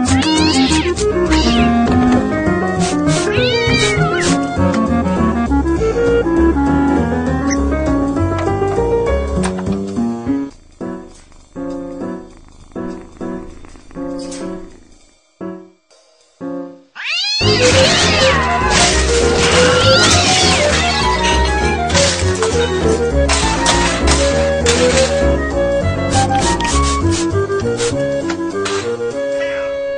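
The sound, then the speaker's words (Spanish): Cats yowl and wail loudly and almost nonstop in a fight, their drawn-out cries wavering in pitch, with a short broken stretch of choppy bursts partway through before the screeching surges back. “Qué, qué feo estuvo esa pelea”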